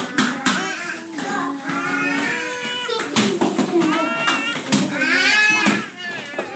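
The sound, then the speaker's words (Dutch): Five young children's voices chatter and squeal over one another while playing board games at a party at home, high-pitched and lively, with bursts of excited calls and laughter-like cries throughout. “Vijf gelukkige kindjes die samen spelen fantastisch.”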